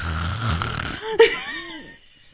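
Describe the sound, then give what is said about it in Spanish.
A voice imitates loud snoring: a rough, rattling inhale for about a second, then a sharp catch and a wavering, whistly exhale that fades out. No words are spoken. “Y el sonido como que se puso un poquito más fuerte cada vez.”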